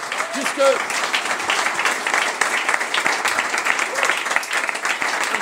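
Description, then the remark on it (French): Steady, dense applause from a crowd, many hands clapping continuously at an even loudness for several seconds, with a few faint voices and whoops mixed in. “Applaudissez-vous s'il vous plaît.”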